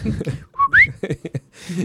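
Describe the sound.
A person imitates the soft whistle of a courting male wild boar in mating season: a short steady tone followed by a quick rising whistle, set between bursts of speech.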